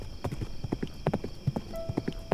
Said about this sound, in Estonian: ta nägi hämarduvas metsas puude vahel liikuvat kogu. see oli hobune. see oli lapiline säru ja Anna ratsutas tema seljas. säru kappas kiiresti ja Anna keha sadulas oli hobuse kaela kohale kummardunud.